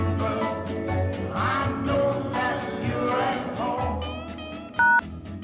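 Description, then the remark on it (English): A single sharp telephone keypad tone beeps loudly near the end, cutting briefly above a dense, steady bed of background music. “Pick up the receiver.”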